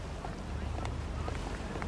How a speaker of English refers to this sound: It's lovely here when the boats yeah. pass by, hmm?